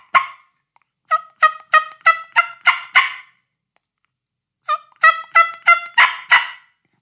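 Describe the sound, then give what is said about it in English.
Two short series of turkey clucks and a purr made on a mouth call, each run of about six crisp, evenly spaced notes, separated by a brief pause, with no talking. “You know, it's it's just a just a couple clucks. Uh, might throw a purr in there.”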